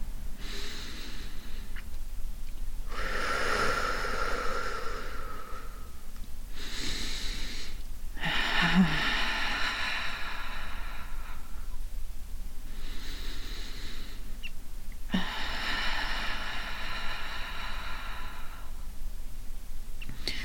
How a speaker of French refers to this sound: N'hésite pas à faire une respiration bruyante et sans pause.